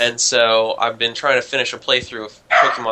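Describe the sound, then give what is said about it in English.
A small corgi barks sharply a couple of times in the background, partly buried under a man talking steadily. “I, I apologize for the barking, by the way.”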